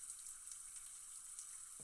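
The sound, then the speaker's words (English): Dark porter beer pours steadily into a glass, a continuous fizzy, splashing hiss lasting a couple of seconds, fairly quiet, with no voices. “Let's pour some out, see what it really looks like here.”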